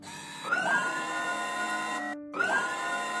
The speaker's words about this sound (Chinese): 看到一台屏幕闪闪发光的巨型电脑，电脑一会儿亮一会儿暗，发出微弱的声音